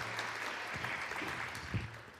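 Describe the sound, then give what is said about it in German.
An audience applauds in a steady, dense wash of clapping that holds at an even level for a couple of seconds, with no voices over it. “Ja, ein Applaus für dich.”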